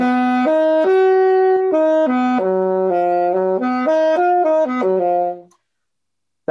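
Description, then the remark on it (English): A C major chord sounds over an F-sharp bass, voiced F-sharp, C, E, G from the bottom up, held and then shifted through several closely voiced notes, loud with no talking, before fading out into silence. “the way we would perceive this is to have the F sharp on the bottom, then the C, then the E, then the G”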